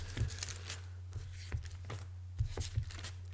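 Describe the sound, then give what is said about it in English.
A refrigerator making irregular sharp pops and crackles, several short clicks scattered over a few seconds, over a steady low electrical hum, fairly quiet with no talking. “You might be hearing this popping sound. I think it's my refrigerator.”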